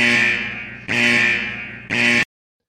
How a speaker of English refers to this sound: Sir, I'm just going to hit the alarm button because I don't even need to wait.